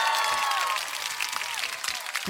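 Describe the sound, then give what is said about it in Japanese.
A steady burst of applause from a crowd, dense crackling claps filling the whole two seconds at an even, fairly loud level, with no one speaking over it. “パチパチパチパチ。”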